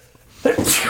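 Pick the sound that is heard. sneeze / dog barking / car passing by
sneeze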